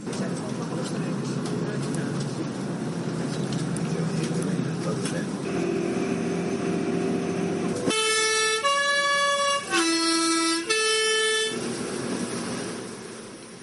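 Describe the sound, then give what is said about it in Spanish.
A loud multi-tone horn on a Grindelwald bus in Switzerland plays a short, melodic sequence of stepped notes, rising over a steady rumble of engine and road noise before fading back into the drone; the bus sounds it when passing along narrow mountain roads. “Este sonido, como habéis escuchado, no es nada más que una bocina que el autobús da cuando pasa por las carreteras estrechas de montaña”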